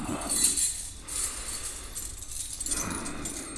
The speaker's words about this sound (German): In dieser Schuhschachtel hatte es Unmengen von Schlüsseln gehabt. Und der alte Hufschmied hat schön einen nach dem anderen ausprobiert.